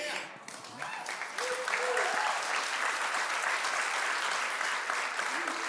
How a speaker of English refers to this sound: they're clapping for you more than me. Come on. And we should.